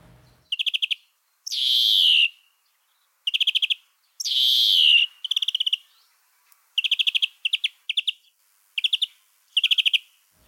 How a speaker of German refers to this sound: Grünling.